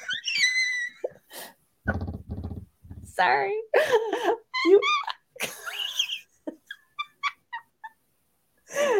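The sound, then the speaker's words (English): A female pet bird chirps and chatters with high, warbling calls and short whistles, interleaved with a person speaking briefly. “Go back to what you were saying, and I will stop being distracted by my beautiful girl.”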